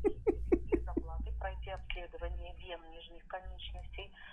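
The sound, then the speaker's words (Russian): A mobile phone rings with a quick run of bright, repeating tones. The ring carries on into a busier melodic pattern, with talking mixed in over it. “Кто мне звонит?”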